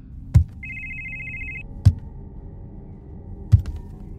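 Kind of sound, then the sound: signal or alarm, cellphone ringtone ringing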